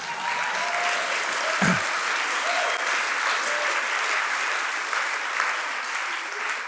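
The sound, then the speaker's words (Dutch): An audience applauding God steadily, a dense wash of clapping that holds at an even loud level throughout, with a few faint cheers and whistles rising briefly above it. “Ja, geef God eens een applaus.”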